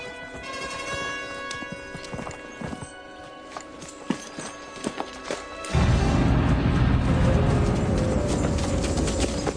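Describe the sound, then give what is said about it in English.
Horse hooves clop in an uneven patter beneath a drawn-out horse whinny, then a louder rushing, scraping noise takes over for the last few seconds, as a beaten man is dragged by a horse. “they do send McCreary back, um, beaten, dragged by a horse, and tell Wyatt this right here.”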